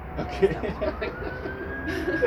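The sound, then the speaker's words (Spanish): A wailing emergency siren holds a steady, slowly rising tone in the background, fairly faint, with people talking over it throughout. “Llámame a una cascada al lado, donde no escuchemos sirenas.”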